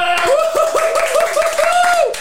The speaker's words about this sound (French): Et je te propose qu'on accueille ensemble, sous un tonnerre d'applaudissements, bien entendu, parce que le public est en folie,